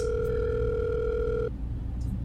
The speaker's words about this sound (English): It goes to ring. And then after a few tones